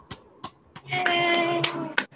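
A small round of applause: roughly six sharp, separate hand claps at an uneven pace. Partway through, a steady tonal hum rises beneath the later claps.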